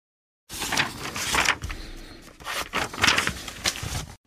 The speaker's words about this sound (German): Ohne dieses Geräusch kann ich mir mein Leben nicht vorstellen. Das Rascheln von Buchseiten. Ein Geräusch, das mich seit meiner Kindheit verzaubert.